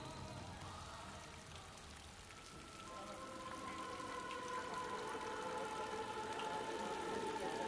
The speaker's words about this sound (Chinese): 下着蒙蒙细雨